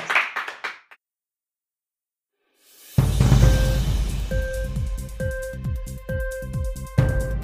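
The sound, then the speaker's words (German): Following a moment of near silence, loud, steady applause breaks out and carries on for several seconds: many hands clapping in a dense rattle, with a few sustained tones ringing over it. “Ihr, ihr Applaus. Ihr Applaus.”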